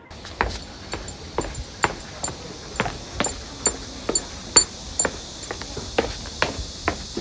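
Steady footsteps walking down an unfamiliar downhill road in Chongqing, China, about two per second, each a sharp tap, with the walker's bracelet jingling brightly alongside many of the steps. No one speaks.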